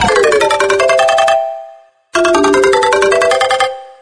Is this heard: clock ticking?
no